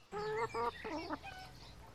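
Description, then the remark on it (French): Several hens cluck in quick, bright bursts in a newly inaugurated shared village henhouse in Colias, two or three calls in a row then quieter murmuring clucks trailing off, with no one speaking. “C'est pourquoi la première chose, euh, une petite affiche que je donne à tout le monde pour venir, a dit bonjour à les poules.”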